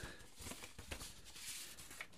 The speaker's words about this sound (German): Das ist schönes Rascheln der Blätter, das macht das Ganze so ein bisschen echt.